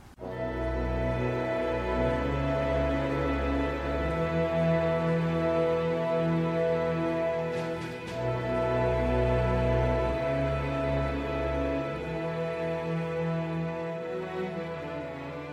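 A rock power ballad plays loudly and continuously, with sustained full-band chords, heavy bass and a brief cymbal crash near the middle; no speech over it.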